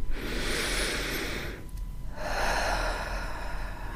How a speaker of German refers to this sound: Gerne beweg dich im Hund nochmal durch. Vielleicht magst du auch mal tief über den Mund ausatmen.